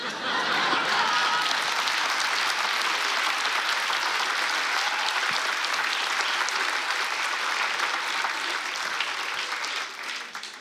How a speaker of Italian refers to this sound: Avete appena fatto l'applauso a un pene storto.